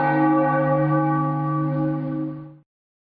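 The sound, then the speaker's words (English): A church bell rings out with a rich, sustained metallic tone full of overtones, loud, holding steady for a couple of seconds before cutting off abruptly into silence. “Oh, ringing that bell again for him.”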